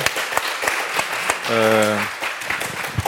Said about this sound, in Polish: Wielkie brawa i podziękowania.